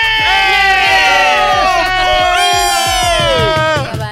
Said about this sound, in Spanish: Porque ya los demás ya los oyes gritando ya de los últimos gritos.